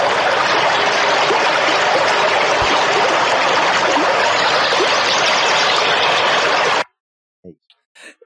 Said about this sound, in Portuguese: Ah, ainda bem que ninguém escuta essa parte aqui do podcast, que vai estourar o seu ouvido. Pô, esse barulho da água aí.